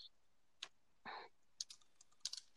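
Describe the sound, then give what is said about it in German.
Someone types a message on a device in short, irregular bursts: a few crisp, bright clicks and taps with gaps between them, fairly quiet, with no one talking. “Ich schreibe parallel mit Tobi, deswegen, äh, ich glaube, er hat mir nämlich eine Sprachnachricht mhm.”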